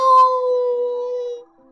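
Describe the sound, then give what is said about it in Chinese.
A single long, drawn-out meow of a barn cat that is stretching, likely a person imitating it. It holds a steady, slightly falling tone for about a second and a half, then stops, with no talk around it. “是谷仓的猫。在伸懒腰呢”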